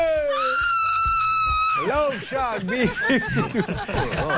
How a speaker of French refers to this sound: En fait, c'est des cris de fans.